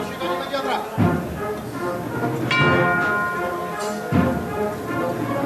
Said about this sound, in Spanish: Mira cómo suenan también las campanas, ¿eh?